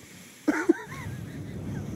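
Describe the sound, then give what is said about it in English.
A voice imitates heavy, snorting breaths into the microphone: two quick loud huffs, followed by a short wheezy, whistling exhale that trails off over low background rumble. “I'm like, "Cause you're freaking snorting the microphone."”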